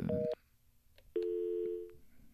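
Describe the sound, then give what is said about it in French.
Telephone line tones after a call with two people on the line cuts off: a brief two-pitched electronic beep, a short gap, then a longer steady mid-pitched tone, loud and with no one speaking. “on a perdu les deux en même temps.”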